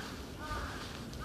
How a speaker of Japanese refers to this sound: 今鳥の声が聞こえますでしょうか多分これはハシブトガラスというですね、えカラスの一種の鳴き声かと思います